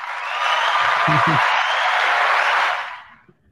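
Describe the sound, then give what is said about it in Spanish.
A burst of applause from a group, dense steady clapping that swells in quickly, holds for a couple of seconds and then fades out, with a brief laugh heard underneath. “Un aplauso.”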